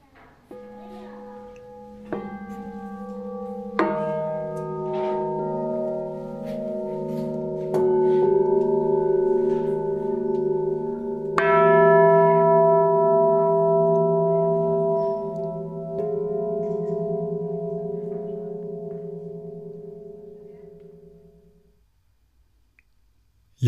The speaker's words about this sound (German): Ich werde jetzt weitergehen und spiele dann auf einem Klangschalenklavier